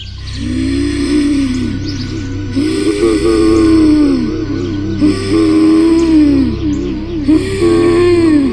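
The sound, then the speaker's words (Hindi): A strange, low guttural growling, heard from behind a door locked from the inside, rises and falls in about four long, swelling waves, loud, with a droning undertone and no talking. “पर तभी जवाब में मुझे किसी के गुर्राने की आवाज़ सुनाई दी अजीब गुर्राने की आवाज़”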